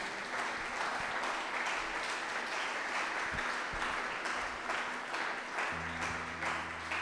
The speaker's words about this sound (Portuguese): Se você crê nisso, dá uma salva de palmas ao Senhor.